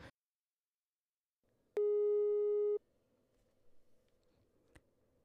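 A single steady telephone signal tone sounds loudly for about a second as a call is placed to a friend, then cuts off, leaving a low background hum with a faint click near the end.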